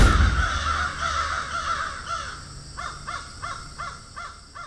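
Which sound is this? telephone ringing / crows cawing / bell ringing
crows cawing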